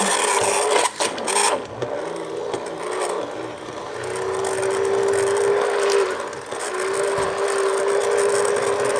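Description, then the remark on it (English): A blue hand blender whirs loudly and steadily, its grinding roar settling into a sustained motor whine with brief dips as it blends a mixture to a nice, creamy, light consistency. No voices. “Hand blender, beautiful blue hand, hand blender.”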